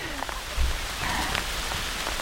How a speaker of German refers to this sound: Es regnet. Ah, nee, ne? Oh, es hagelt Es hagelt!